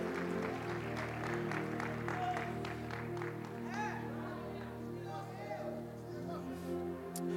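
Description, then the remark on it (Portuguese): A church audience applauds the Lord Jesus in a steady wash of clapping, with voices calling out over it and a sustained organ-like tone droning underneath the whole time. “Aplauda o Senhor Jesus.”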